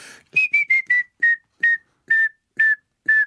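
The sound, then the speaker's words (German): A human whistle imitating a grey-headed woodpecker's call: about nine clear, fairly loud whistled notes that gradually fall in pitch, spaced more widely toward the end. “Grünspecht mag gleichbleibende Höhe, mhm. äh, gleicher Tonabstand und beim Grauspecht dieses”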